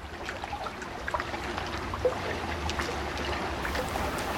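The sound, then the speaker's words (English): Water laps and trickles around a small rowboat on a pond between a shopping mall and an apartment complex, a steady wash with scattered light splashes and a low rumbling undertone, no voices. “Dude, we're in a rowboat in a pond.”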